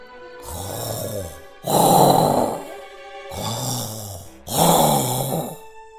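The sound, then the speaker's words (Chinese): Loud, raspy snoring from a small pet animal curled up in a cage, four long rumbling snores in a steady rhythm, each breath grinding and buzzy, with brief quiet gaps between and no talking; the cage shakes as it snores. “妈妈质疑道：“ 哎呀，这呼噜也打得太响了吧！”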